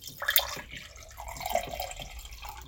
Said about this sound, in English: on this particular block, we've got a large hole which we've drilled into the top, which I'm filling with water.